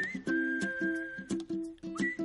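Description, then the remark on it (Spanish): A clear whistled melody in a song rides over a rhythmic backing, the long sustained whistle notes steady and prominent, with short plucked or strummed ukulele chords pulsing underneath and the sound of waves. “Silva alguien, que es un recurso que no se ha utilizado nunca bonito ese silbido.”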